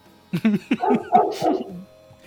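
A dog barks and yowls in a quick burst of several loud vocalizations lasting a second or two, then falls quiet.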